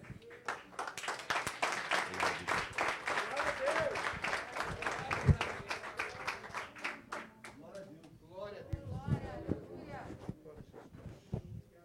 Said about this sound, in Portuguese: Amém. Aplauda bem mais forte ao Senhor Jesus. Amém. Glórias a Deus.